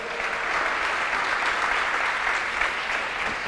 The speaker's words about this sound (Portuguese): Você pode dar um aplauso aí? Os anjos do Senhor.